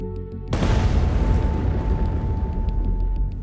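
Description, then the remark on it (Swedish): A low steady hum is cut off by a sudden, powerful explosion boom on the Baltic Sea, where something struck the ship Hansa, followed by a loud, sustained rumbling roar that carries on for several seconds without fading much. “Spekulationerna rör sig kring att det var en torped som orsakat den kraftiga explosionen på Östersjön.”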